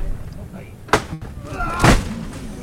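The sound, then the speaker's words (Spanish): A wooden support pole (zanco) of a Good Friday procession float of the Hermandad de Jesús Despojado scrapes against the pavement as the float is lifted: a sharp knock first, then a longer, louder grinding scrape about a second later, over a low murmur of background noise. “Pero ha habido ahí un roce inevitable que indica dentro de X años, cuando los arqueólogos del futuro escuchen esta grabación, sabrán que es un Viernes Santo, porque el zanco al levantar roza”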